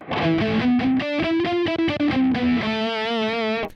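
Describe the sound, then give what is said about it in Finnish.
A distorted electric guitar picks out a quick run of single notes with a plectrum, with crisp attacks, ending on a long sustained note with wavering vibrato. Loud and on its own, with no talking. “Nyt voi sanoa, että mä pikkasin noin äänet.”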